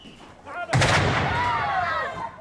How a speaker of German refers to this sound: Seit Mittwochabend ist Akçakale im Ausnahmezustand. Wer fliehen kann, flieht. Granateneinschlag mehrfach am Tag.